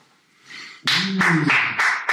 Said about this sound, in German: Ja, Applaus kam